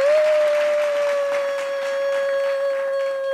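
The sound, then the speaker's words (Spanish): A few seconds of continuous clapping from a group, steady and fairly loud, with a sustained high whistle-like tone held over it the whole time. No one speaks. “Un aplauso a todos.”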